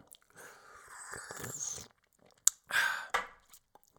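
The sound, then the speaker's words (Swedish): Sipping of homemade mead: a long, airy slurp, then a sharp lip click and a short, wet follow-up sip and swallow, with no talking. “Ta en liten slurk eh, hemmagjord mjöd här, låter så här.”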